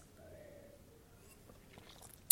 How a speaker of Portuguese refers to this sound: É, ai, deixa eu dar um gole aqui, gente, que ai, de fato, tô falando horrores.